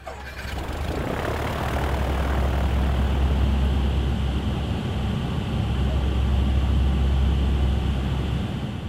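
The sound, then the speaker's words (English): A loud, steady drone of C-130 aircraft engines heard from inside the cabin at night, a deep low rumble under a broad roar that holds constant from start to finish with no voices. “The only thing you can see inside a C-130 at night like that is this the red jump light above the uh, jump door and down on the floor, and there's this hum of the plane.”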